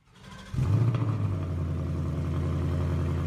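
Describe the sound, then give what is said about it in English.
A car engine roars to life, revs up briefly, then settles into a steady, deep idling rumble with a slight clatter. There is no talking. “You can rev it a little.”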